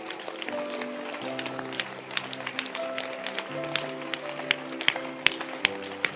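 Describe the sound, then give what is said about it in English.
A crowd claps steadily and unevenly for several seconds, sharp hand claps scattered over sustained keyboard or organ chords playing underneath. “Now clap your hands and listen to the hand clap.”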